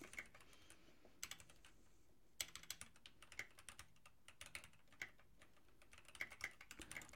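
Keys clatter on a computer keyboard in quick, uneven bursts of clicks with brief pauses, fairly quiet, with no voices. Someone is typing a prompt into ChatGPT.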